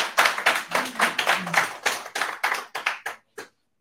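An audience claps steadily, roughly a dozen sharp claps at an even pace that grow sparser and stop after a few seconds, with no talking over it.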